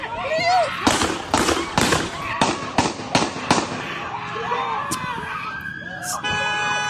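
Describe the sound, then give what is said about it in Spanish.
A rapid burst of seven loud, sharp gunshots fired by police cracks out in quick succession, with agitated voices shouting around them and a steady siren-like tone rising near the end. “O sea, como que si con un disparo no fuera suficiente, no hay que darle siete balazos para que, para que amarre.”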